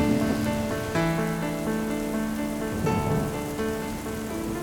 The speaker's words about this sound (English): their small birdie bodies knock against the windows, creating a terrible drumbeat to never ending downpours.